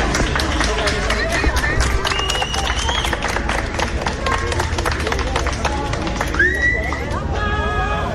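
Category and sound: crowd, crowd applauding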